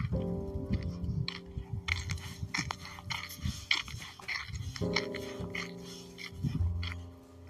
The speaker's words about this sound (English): That's sound of my footsteps. I don't know if you can hear them.